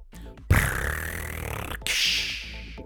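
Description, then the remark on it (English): Audible gulping while someone drinks a pickle-juice-flavored drink, heard as two loud, breathy bursts of swallowing noise in quick succession, with a low throaty grunt underneath. “I heard a gulp.”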